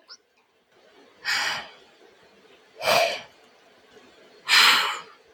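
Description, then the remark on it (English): A child imitates a snake's hiss with three breathy hissing bursts, each about a second long, spaced evenly apart with quiet pauses between them and no talking. “Do they hiss? Yes. Can I hear you hiss a little bit?”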